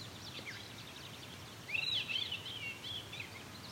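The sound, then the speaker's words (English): A songbird delivers a string of thin, rising whistled notes imitating a shorebird's call, moderately loud over a steady outdoor hiss with fainter chirping in the background. “is probably a shorebird of some kind that he's mimicking.”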